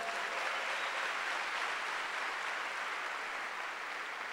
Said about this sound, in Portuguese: Você pode dar salve de palmas para Jesus?